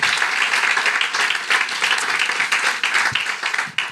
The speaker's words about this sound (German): Ähm, hey, lass uns nochmal einen fetten Applaus für das Team geben.